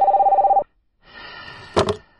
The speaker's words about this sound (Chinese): 时钟再次指向了十二点，电话也响起了，但是小鹿今天却不是立刻接起电话。